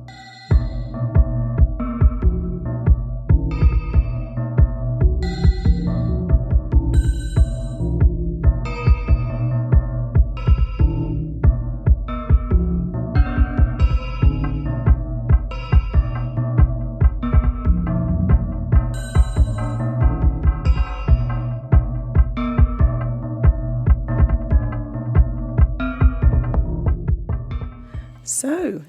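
An experimental electronic track from a 2020 album, with dense, throbbing low-end pulses overlaid with sharp, metallic percussive hits in a steady, driving rhythm, loud and continuous throughout with no voices.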